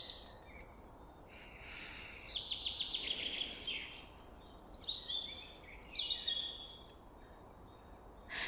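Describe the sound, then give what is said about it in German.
Several birds sing over a steady outdoor hiss, their bright chirps and trills overlapping in quick bursts, with no one speaking. “Hörst du die Vögel?”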